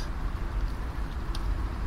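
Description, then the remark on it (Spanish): A military helicopter flying overhead, its deep, steady rumble filling the air, a continuous heavy drone of engine and rotor that stays loud throughout, with no voices. “Es un helicóptero militar, ¿no?”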